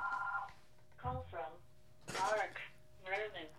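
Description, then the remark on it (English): A short electronic telephone ring sounds once, clear, then stops as if picked up, followed by brief muffled voices talking. “Let me get the phone.”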